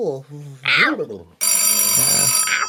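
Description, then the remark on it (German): A voice is heard briefly, then an old-fashioned telephone bell starts ringing loudly, a continuous metallic jangle that fills the rest of the moment. “Ich hasse Telefone und ihr Klingeln.”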